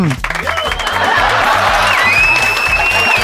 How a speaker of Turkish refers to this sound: E millet, Kral Pop Radyo'ya hoş geldiniz. Bir alkış efekti duyalım bakalım.